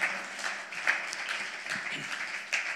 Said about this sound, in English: Come on. Jesus is building his church. Can we just clap our hands one more time